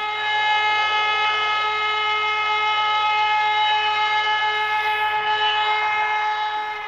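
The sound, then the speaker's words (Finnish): A volunteer fire brigade's alarm siren, sounding after an alarm call, gives one steady, loud, sustained tone for the whole stretch, rich and buzzing, with no rise or fall and no voices. “Hälytyksen tultua sireenin on kuuluttava kotipihalle asti.”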